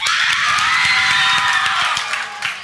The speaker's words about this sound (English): I just need to hear you guys yell. Let me hear you give yourself a hand or loud. Let me hear me yell. Like you're the only reason all these people are here tonight. Let me hear you. Come on.